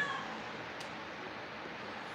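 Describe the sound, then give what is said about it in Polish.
A cat meows in a long, drawn-out, slightly strained wail that holds steady for a couple of seconds, not loud, with no voices around it; the cat has just seen a fresh, forest-scented Christmas tree. “Nikt kota nie obdziela ze skóry, kot zobaczył świeżą, pachnącą lasem choinkę i nie wie co z nią zrobić.”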